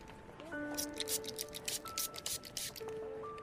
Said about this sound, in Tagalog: Ito po ma'am. Malinis na po yan. Lagi ko pong ini-spray ng alkohol. Pero sprayan ko po ulit sandali ng alkohol bago niya isuot.